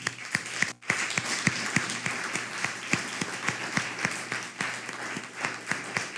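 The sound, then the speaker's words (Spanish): An audience applauds steadily in tribute to the Eternal (God), many hands clapping in a dense, continuous patter with sharp individual claps standing out, sustained for several seconds with a brief dip near the start. “Así que vamos a brindarle un fuerte aplauso a todo, primeramente al Eterno, bien fuerte, al Eterno.”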